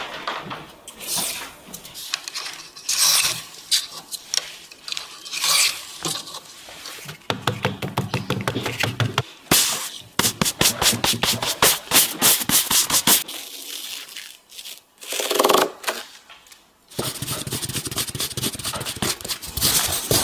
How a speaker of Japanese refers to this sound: 今朝は提灯作りのいい音それではお聞きください